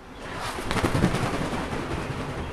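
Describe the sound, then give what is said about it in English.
An owl missing a bone flies, its wings flapping noisily, a steady airy rustling and whooshing with a few quick beats in the middle, fairly soft, with no voices. “It's not loud, but that's the sound of Papa Gaho flying.”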